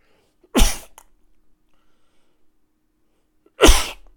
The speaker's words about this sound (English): hang on one second, again, sneezing maybe.